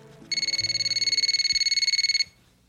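A mobile phone rings as a call is placed to it, with a high, rapidly trilling electronic tone, one steady burst of fast pulses lasting about two seconds before cutting off, with only faint background noise and no talking.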